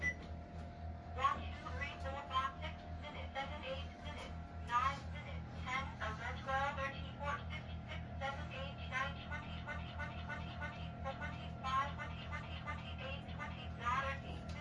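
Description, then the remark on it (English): Short electronic beeps from an oven control panel as buttons are pressed to set the timer for half an hour, set against a steady low appliance hum, with a person talking throughout. “So I'm gonna set the timer for half an hour.”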